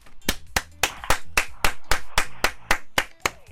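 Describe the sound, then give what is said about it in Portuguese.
A single person claps alone at a steady, brisk pace, about eleven sharp, crisp claps in a row with no voices. “és a única pessoa a aplaudir.”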